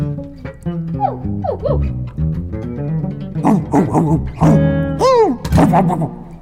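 Several short, high yipping barks like a small dog's, rising and falling in pitch, scattered over a steady background of plucked string music at moderate volume.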